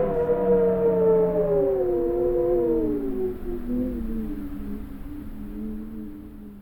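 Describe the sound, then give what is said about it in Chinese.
Strong typhoon wind in Taiwan howls loudly and steadily, a moaning tone slowly sliding lower in pitch over a low rumble for several seconds, with no one speaking. “啊，这这这风太大了！”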